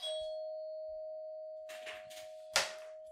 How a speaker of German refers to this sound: Das, meine Damen und Herren, war meine Türklinge. Türklingel.